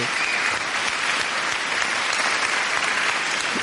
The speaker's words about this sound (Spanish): Un aplauso para el último DJ el último, El último y el que más tiempo estuvo en la brindola. residente.